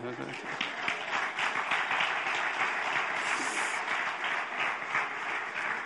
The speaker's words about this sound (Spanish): ¿eh? Nada, un aplauso, nada, ahí no le gustó.